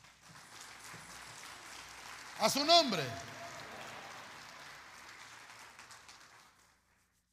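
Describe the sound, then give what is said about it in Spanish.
An audience claps their hands for the Lord in a steady, dense patter that fills several seconds before fading out, with a brief spoken phrase rising over it midway. “Dele palmas al Señor, hermano.”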